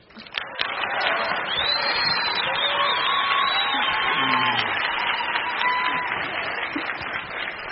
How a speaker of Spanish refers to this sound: Bueno, démosle un aplauso más fuerte a Cata, que estuvo espectacular, eso.